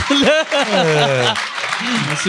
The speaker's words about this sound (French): pour de vrai, j'aimerais ça, une bonne main d'applaudissements pour son crowdwork.